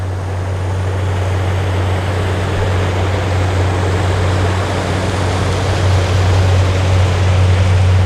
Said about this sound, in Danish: Et par store motorbåde sejler forbi med fiskestænger, der strider op i en vifte fra bagstavnen store spraglede vobler og dingler i stangøjerne og fanger solen. Lyden hænger lidt ved, efter båden er forsvundet.